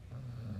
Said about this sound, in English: if you hear snoring that is the dog